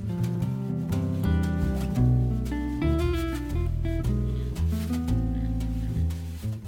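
A jazz trio of guitar, upright bass and drums plays a slow standard, with sustained guitar chords over a walking bass and light cymbal strokes, at a steady moderate volume with no voices.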